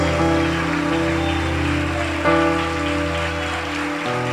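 A church audience claps steadily and continuously, a dense hiss of many hands, over sustained, droning keyboard chords that hold through the whole stretch with a brief swell midway, as people come up to the altar.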